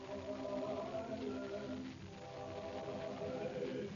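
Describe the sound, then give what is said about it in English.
A small group of Christmas carolers sings a carol together in sustained, blended harmony, steady and moderately loud from start to finish, with no speech over it. “Listen, Al, it's the Christmas carolers. See, that's pretty.”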